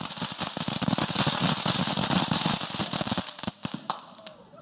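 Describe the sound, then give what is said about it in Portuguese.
A cone-shaped 'volcano' firework fountain, lit and releasing a rush of gunpowder sparks, bursts with a dense, loud rush of hissing and rapid crackling pops for about three seconds, then thins out into scattered, sharper snaps as it dies down. “E tem aquele som, que era sempre o último fogo de, fogo de artifício.”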